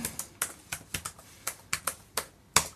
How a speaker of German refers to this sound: Tipp, tipp, tipp, die Schreibmaschine. ja, so geht das, guck mal.